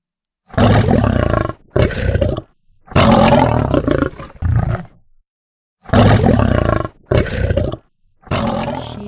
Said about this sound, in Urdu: اور یہ کہتے ہی شیر نے زور سے دھاڑنا شروع کر دیا دھاڑنا شروع کر دیا یعنی ہی اسٹارٹیڈ ٹو روڈ